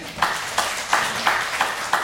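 A group claps together in a steady, even rhythm, about six crisp claps roughly a third of a second apart, over a faint background hum with no talking.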